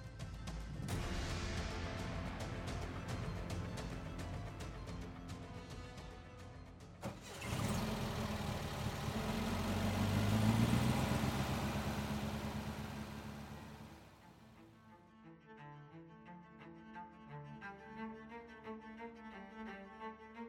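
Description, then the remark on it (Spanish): A Volkswagen Beetle (Volkswagen Sedán, known in Mexico as the Bocho) engine idles with a steady, rumbling chug, then surges louder after a sharp clunk before settling back. Fairly loud, with no voices. “Bueno, sin más, tal vez algunos ya adivinaron a qué coche nos referimos y si no, hoy para ustedes hablaremos del Volkswagen Sedán, mejor conocido en México como el Bocho.”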